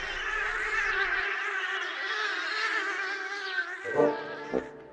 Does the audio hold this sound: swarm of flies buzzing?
yes